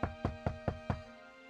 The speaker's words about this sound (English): By 10 a.m., they knocked on Cora's door.